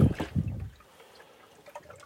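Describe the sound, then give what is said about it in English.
A brief slosh of ocean water against a surface, loudest in the first moment, then fading into faint trickling and lapping sounds with no voices. “Uh, the ocean can take me as far north as it is going to.”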